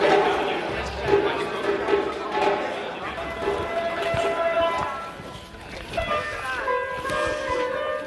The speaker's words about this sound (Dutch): En u hoort natuurlijk de djembees op de achtergrond.